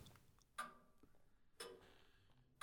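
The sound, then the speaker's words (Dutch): A clock ticks steadily, with three crisp, sharp ticks about a second apart against a quiet, faintly hissy background. No one speaks. “Het tikken van de pijn. Geruisloos lekken tranen de klokkast uit.”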